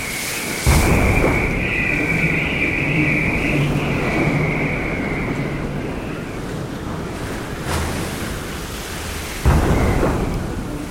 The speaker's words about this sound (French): Le Salazie est arrêté dans sa marche à la dérive. Mais toute la nuit, des lames formidables viennent battre ses flancs à tribord avec un bruit de tonnerre.